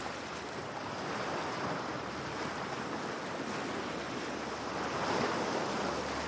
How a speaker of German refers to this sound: Du hörst das Rauschen der Wellen kannst das Salz in der Luft beinahe schmecken.